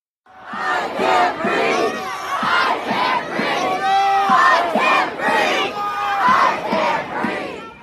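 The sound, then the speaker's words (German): A large protest crowd in the USA, part of nationwide protests and unrest that flared up in May after the violent death of George Floyd at the hands of a white police officer, shouts in unison, loud rhythmic chanting with repeated bursts of raised voices, about one call per second, sustained throughout. “Das sind die lauten Aufschreie landesweiter Proteste und Unruhen in den USA, die im Mai diesen Jahres aufs Neue aufflammten.”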